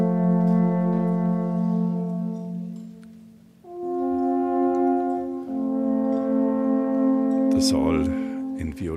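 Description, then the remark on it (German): Alphorns play long, sustained low notes that are rich in harmonics at the Nockherberg, just before the Lenten sermon (Fastenpredigt), creating a solemn mood. The pitch steps up twice, and the steady chords stay loud throughout, with a brief rustling burst near the end. “Alphörner erklingen, eine feierliche Stimmung.”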